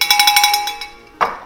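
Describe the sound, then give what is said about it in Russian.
A small bell chimes in a quick run of about eight bright, high-pitched strikes that fade out, followed a moment later by one more ring. No one speaks. “Это звук колокольчика, который будет означать, что мы переходим к следующей теме.”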